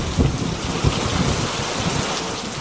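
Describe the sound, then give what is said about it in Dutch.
A steady rain shower hisses continuously across the whole recording, with a few low rumbling thumps underneath, fairly loud, with no voices present. “Het zijn altijd buien die komen en gaan.”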